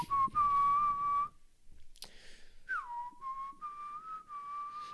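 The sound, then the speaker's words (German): A person whistles a tune in clear, steady tones, holding long notes in two phrases separated by a short pause, with a downward slide at the start of the second phrase. “Kannst du …?”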